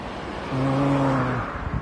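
Steady road traffic rumble on a Sunday in Japan as many cars drive past, with a vehicle's low droning engine tone swelling for about a second as it passes, then fading back into the wash of passing cars. No one speaks.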